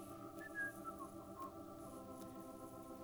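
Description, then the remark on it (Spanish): Someone whistles softly while walking away, a few short, wavering notes drifting up and down over a steady background hum. There's no talking, and the whistling stays faint. “Cuando lo vi, calculé, agarré la bolsa de pan, la tiré en un montecito y me fui silbando”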